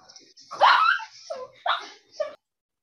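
A dog barks three times up close, the first bark long and strained, followed by two shorter, yelping barks in quick succession before falling silent.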